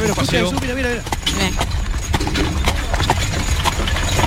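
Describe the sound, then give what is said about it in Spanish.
Steady clip-clop of two mules' hooves on pavement as they pull a cart along the central street of Villanueva, sharp regular strikes over a rumbling street background, with a voice talking briefly at the start. “No digo cuántos caballos están tirando del carro. Dos caballos, son dos, mulos, ¿eh?”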